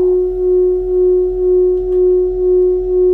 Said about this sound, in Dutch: Jullie hebben twee verschillende sterren gehoord. De eerste ster is een Beta cephei